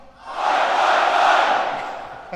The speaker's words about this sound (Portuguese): É tipo um grito de torcida ou coisa assim.